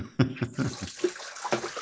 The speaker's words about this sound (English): Run a little water. Run a little water. Put the kettle on.